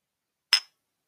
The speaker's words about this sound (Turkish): Cumhuriyet Bayramımız kutlu olsun. İstersen rakı bardaklarını çakıştıralım. Bir gelenek adet olarak.